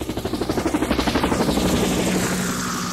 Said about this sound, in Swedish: det är ju min helikopter!